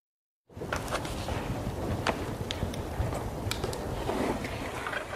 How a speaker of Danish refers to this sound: Ja, YouTube svømmer ikke øh, lige frem over med videoer, der lyder sådan her. Det vil sige øh, lyden af et stille bibliotek.